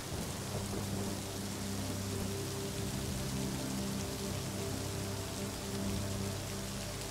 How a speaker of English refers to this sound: the sweet scent of lavender, the sound of the rain, and the warmth of the breeze sends you yet deeper.